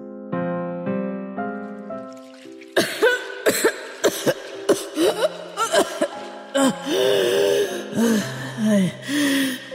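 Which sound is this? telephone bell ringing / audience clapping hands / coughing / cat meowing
coughing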